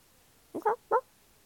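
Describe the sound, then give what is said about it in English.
A rooster lets out a quick run of harsh squawks, two clipped calls close together and then a third, loud against an otherwise quiet background. “Suddenly, he gave a great squawk and rolled over.”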